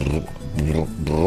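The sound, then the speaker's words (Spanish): A voice imitates a furruco friction drum, a rod on pressed hide rubbed with the fingertips, with deep, raspy, rumbling hums in three short pulsing bursts. The sound is steady, and no words are spoken. “Está compuesto de una varilla sobre un cuero prensado y que por medio de la fricción, este, de, cuando usted con, los, ah, con las yemas de, las, de sus dedos le da este, esta vara, bueno, suena como, mm, bien grave, bien ronco.”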